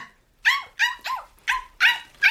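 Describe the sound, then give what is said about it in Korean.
A puppy barks and whimpers in a quick run of six short, high-pitched yips with whiny, wavering tones, fairly loud and evenly spaced, with no talking. “아휴 네가 처음부터 똥오줌을 가릴 줄 알면 사람이지 강아지겠냐.”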